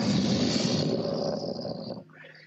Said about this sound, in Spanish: Se vuelve a escuchar una hoguera.